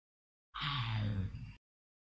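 A single loud lion roar, deep and rasping, lasting about a second with a slightly falling pitch, with silence before and after.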